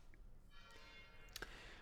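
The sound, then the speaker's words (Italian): Church bells ringing faintly, a sustained shimmer of overlapping metallic tones with a brief brighter clang near the end, and no voices. “mentre sentite le campane per- che gioiscono per le notifiche, per notifiche raggruppate.”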